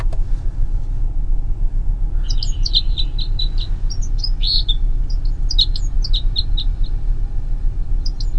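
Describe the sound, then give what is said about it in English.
A run of short, sharp chip-like calls from red crossbills, repeated in quick bursts over a steady low rumble of traffic, clear. “That was the Red crossbill.”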